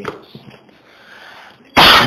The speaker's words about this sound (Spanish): Los manos me activaron justamente ahorita la tos